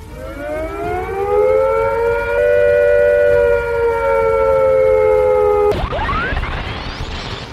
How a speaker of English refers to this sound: If attack is imminent, you will hear the attack sound like this.